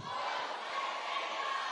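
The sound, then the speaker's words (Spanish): A crowd with right hands raised shouts the phrase 'voy a buscar el reino' together in one loud, sustained burst of many voices, a dense roar of unison chanting that holds steady from start to finish. “Alguien que grite, voy a buscar el reino.”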